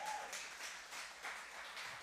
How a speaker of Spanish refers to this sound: Usted ya está cubierto. Ahora sí puede dar un aplauso si usted quiere.